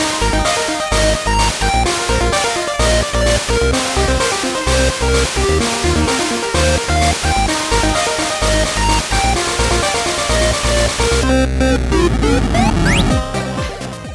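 Loud intro music with a steady, pulsing beat and bright layered tones, breaking near the end into a swirling, warbling sweep before cutting off. No one speaks.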